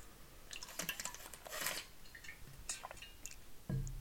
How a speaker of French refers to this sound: Je prends une petite gorgée d'eau.